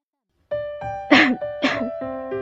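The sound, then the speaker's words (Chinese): A voice gives a deliberate, throat-clearing series of coughs: a hummed, throaty lead-in followed by two sharp, harsh cough bursts about half a second apart, fairly loud with no other talking, voiced for a tall, haughty rocket tied to a long stick, coughing to draw attention before speaking. “他咳嗽着，大家都注意地听着。”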